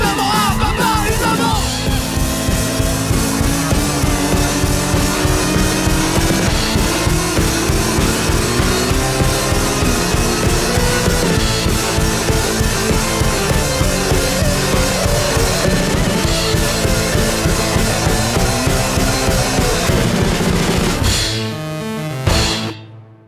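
A loud, dense rock track with shouted vocals over driving drums and distorted guitars, playing steadily at full volume before cutting off abruptly near the end.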